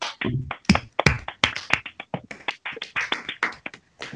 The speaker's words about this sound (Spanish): Aplausos.